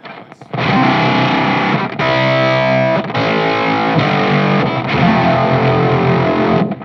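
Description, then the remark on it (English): Heavily distorted electric guitar strumming sustained chords played higher up on the neck, each ringing for about a second before the next, loud with a thick, saturated, fuzzy tone and no voices. “feels like this sound is not uh, very very good for chords.”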